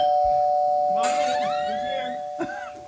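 A doorbell rings once with a bright two-note ding-dong, fairly loud, over a steady electronic hum that runs through the whole moment.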